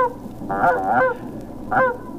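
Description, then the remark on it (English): Nasal, goose-like honks made by human goose callers imitating geese, from an album: a drawn-out series of loud calls, a pause, then one shorter honk, clear with no talking. “It's the authentic sound of people who think they're geese.”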